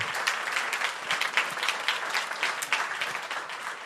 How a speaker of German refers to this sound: Und lasst uns auch unserem Lobpreisteam heute Morgen nochmal einfach einen Applaus geben und es ehren, dass sie das tun.